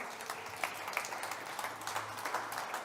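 A group applauds with steady, dense clapping for about three seconds, a fairly soft wash of many overlapping claps with no talking, welcoming a special guest.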